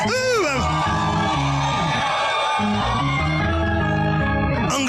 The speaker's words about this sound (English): you shout and release it. Some of you are shouting like,